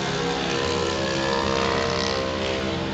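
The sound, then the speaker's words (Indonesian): A loud, droning motorcycle engine runs for the whole stretch, its buzzing rumble holding steady and swelling slightly midway, with no voices over it. “aduh motor ini berisik banget dah”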